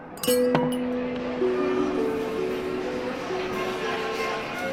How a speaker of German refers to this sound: Und als sie ihren Platz verließ, stand sie so entschieden auf, dass ein Glas umkippte.